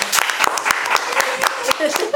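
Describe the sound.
A short burst of applause: many sharp, irregular claps overlapping into a steady crackle for about two seconds, with some faint voices underneath.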